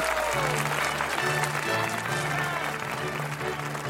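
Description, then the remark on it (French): Sustained applause from a large audience acclaiming a Lully work at the French royal court, a dense, steady wash of clapping that fills the whole moment, with a faint murmur of voices and a low musical hum beneath it. “C'est un succès, le public l'acclame, le roi est séduit.”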